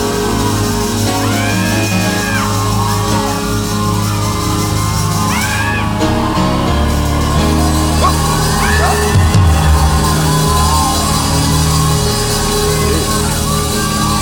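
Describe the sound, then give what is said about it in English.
A large crowd shouts and yells excitedly, voices overlapping in a dense, loud roar with occasional rising whoops standing out above the steady clamor. “Screaming, gonna have joy!”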